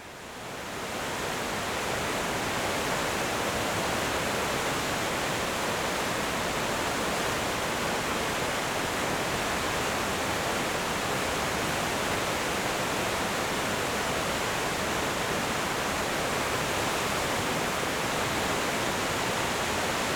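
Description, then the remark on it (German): A steady, dense roar of rushing water from the Enns river in the Gesäuse, heard while cycling downstream along it. It fades in during the first couple of seconds, then holds at an even, full volume. No voices or other sounds. “Mit dem Rad geht es ens abwärts und der Fluss spült mir im Gesäuse säuselnd durch die Gehörgänge.”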